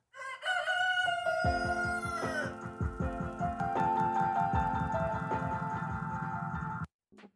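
A rooster's crow, pitch-corrected into a robotic, autotuned melody with stepped notes, rides loudly over a steady thumping beat for about seven seconds before cutting off abruptly.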